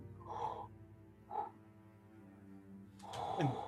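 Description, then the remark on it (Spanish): Breathy exhalations close in the ear with a slight voiced, tonal edge: two short puffs followed by a longer, stronger breath at the end, quiet overall and with no talking. “Puedes escuchar en tu oído una respiración.”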